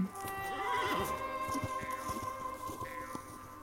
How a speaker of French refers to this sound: Il était une fois, dans de lointaines collines rocheuses, une petite communauté de chevaux mustangs.